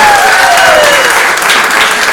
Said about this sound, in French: Donc tout le monde, une bonne main d'applaudissement pour mes deux compères